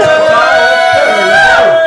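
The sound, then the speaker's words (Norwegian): A crowd in the green room of Studio 4 during a live broadcast cheers and shouts loudly and without a break, many voices blending into a sustained, ringing roar whose pitch swells and dips across the whole two seconds. “Jo, nå står jeg midt i green room, og her er stemninga.”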